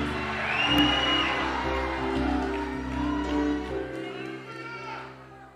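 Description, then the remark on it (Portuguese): A crowd shouts and cheers together, giving a shout of glory to God, a sustained roar of many voices with whoops rising over a low hum, fading out near the end. “Quem aqui é grato, dá um grito de glória a Deus aqui.”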